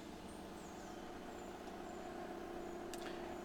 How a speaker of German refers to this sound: jetzt hat er im Hintergrund ein Auto.